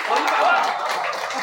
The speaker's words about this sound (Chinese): 今天晚上所有给我鼓掌的朋友们，你们出门就捡钱。好，这边鼓掌比较热烈，一会儿你们出门捡一百万。